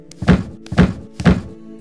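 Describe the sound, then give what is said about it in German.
Three heavy, evenly spaced thuds of a fist pounding on a door, each a deep, booming knock with a short resonant tail, about half a second apart, with no voices. “und pumper gegen die Tür”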